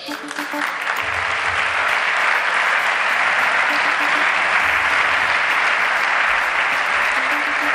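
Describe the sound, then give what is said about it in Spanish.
Sustained applause from many people in a Senate chamber during a debate, a dense steady clatter of clapping that holds at an even, loud level for several seconds with a faint murmur of voices underneath. “No deja de llamarme la atención que se aplauda en un, en un debate como este, pero en fin, que no es un mitin, ¿no?”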